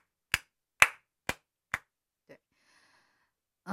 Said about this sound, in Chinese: 我的天哪！我觉得这时候要给自己来点掌声。